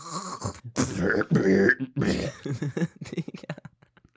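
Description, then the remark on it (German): A voice makes loud, exaggerated throat-clearing noises, harsh rasping bursts followed by a string of short coughs that trail off into quieter, choppy hacks. “Und dann noch mal husten.”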